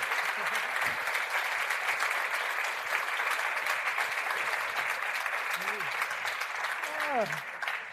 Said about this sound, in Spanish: Así que un fuerte aplauso para nuestro plan C, Miguel Esteban y Joaquín Reyes, creador y estrella respectivamente de Capítulo Cero.